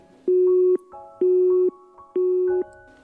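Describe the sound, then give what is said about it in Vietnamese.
A phone busy tone after the call is abruptly cut off: three steady, loud electronic beeps, each about half a second long, evenly spaced with short silent gaps between them. “Điện thoại bị tắt ngay sau đó”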